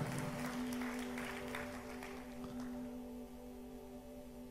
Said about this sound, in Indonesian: Berikan tepuk tangan bagi nama Tuhan.